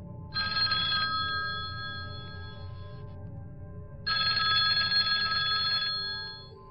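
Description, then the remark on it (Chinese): A telephone on a desk rings in two bursts separated by a short pause, each a bright, high-pitched trilling tone, on a stormy night with lightning. A steady low rumble continues underneath, and no one speaks. “可他的话音未落，桌上的电话就响了起来。”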